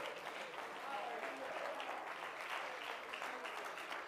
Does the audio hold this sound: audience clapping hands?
yes